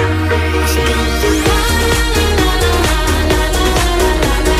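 A loud, dense pop track built on a steady thumping dance beat, with layered synth melody lines that echo another song's tune, playing continuously without any talking.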